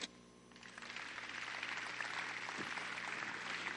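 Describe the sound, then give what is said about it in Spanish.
An audience breaks into applause, a dense wash of clapping that swells quickly after a brief quiet start and holds steady and loud to the end. “Dele un aplauso.”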